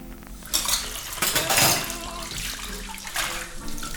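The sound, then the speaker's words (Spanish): Cutlery and dishes clatter in a sink under running water, with bright metallic clinks and scrapes coming in bursts as a spoon is quickly washed among the utensils. “Fue rápidamente lavada, secada y colocada junto a los demás cubiertos con poca delicadeza a decir verdad, pero no importaba.”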